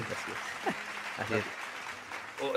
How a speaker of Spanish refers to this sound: Muchas gracias por este aporte, la verdad. Un aplauso, un aplauso público. Ah, no, ¿cómo es? Aplauso elegante. Aplauso elegante. Aplauso elegante.